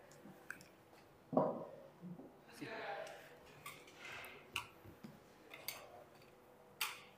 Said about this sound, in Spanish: Vamos a mover un poco la silla.